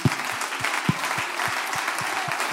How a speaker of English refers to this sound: Before you're seated, give God one more good hand clap of praise.